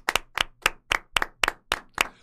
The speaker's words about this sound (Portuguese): Não, não, não, mas vamos dar palmas pro, pros dois. Tem dois. dois campeões. Calma, eu vou falar quem são. É. Troféu Juliette pro queridinho da temporada são dois. Dois vencedores. Demar DeRozan e Darius Garland. Salve de palmas.